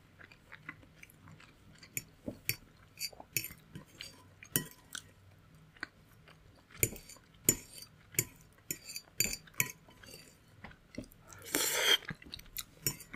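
Cooking and eating sounds from a gricia-style spaghetti meal: irregular sharp clinks of cutlery against dishes, scattered through quiet chewing, with a brief louder rattling burst near the end. No one speaks.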